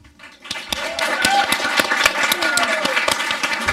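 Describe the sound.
A crowd breaks into applause to welcome a speaker after a brief quiet start, steady and loud for several seconds, dense claps with some sharper individual hits, and faint voices or whoops rising beneath the clapping.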